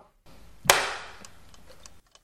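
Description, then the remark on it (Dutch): A chess clock, set to forty-five minutes, is started with one sharp click that rings out briefly, followed by faint, irregular ticking with no voices. “Ik stel de klok weer in op drie kwartier.”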